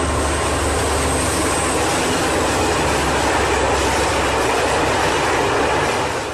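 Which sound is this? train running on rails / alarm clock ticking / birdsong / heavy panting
train running on rails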